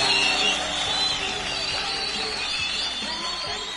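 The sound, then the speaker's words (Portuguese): A dense wash of crowd applause and cheering for the team of the show Madrugada com Pimenta fills the whole moment, loud and steady, with many hands clapping at once and voices shouting in the background. “palmas à equipe Madrugada com Pimenta.”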